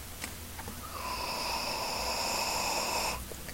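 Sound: deep inhalation and exhalation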